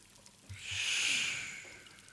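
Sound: voice imitating loud snoring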